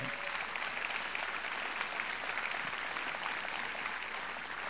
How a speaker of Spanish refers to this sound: Denle un aplauso al Señor a ver si así despierta.